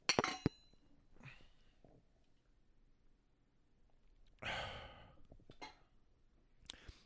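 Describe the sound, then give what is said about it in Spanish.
A couple of bright glass clinks ring out at the start as beer glasses meet in a toast, followed by quiet pauses, a loud satisfied exhale and a few soft taps. “Salud.”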